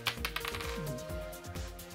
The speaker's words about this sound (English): Let's roll some dice. It's gonna be a D8 because we have a lot of possibilities here.